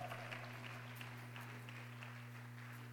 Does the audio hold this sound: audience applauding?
yes